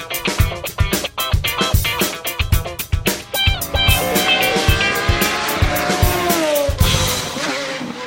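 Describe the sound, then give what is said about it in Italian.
A Pagani Huayra supercar engine howls loudly, its pitch climbing and sliding through the revs, with a run of sharp rhythmic thumps at the start and no voices. “Che bello sentire di nuovo la Pagani Huayra che ulula nelle vostre cuffie, nelle nostre cuffie.”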